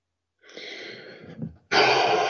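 Two heavy, snorting breaths close to the microphone: a rough, drawn-out exhale, a brief pause, then a louder, harsher puff of air that continues to the end. No talking.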